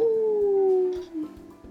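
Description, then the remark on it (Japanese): A person imitates a wolf howl, a single sustained tone gliding slowly downward for over a second before breaking off, loud, followed by a softer trailing note. “そうだよ遠吠え中秋の名月だよ遠吠えしてみたくなっちゃった”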